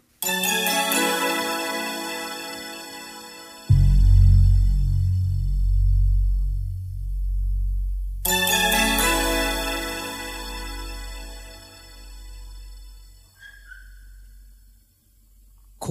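A live pop song, recorded in concert at Nakano Sunplaza Hall on March 15, 1992, opens with bright, chiming keyboard chords, then a deep, steady bass line joins a few seconds in; purely instrumental so far, full and moderately loud.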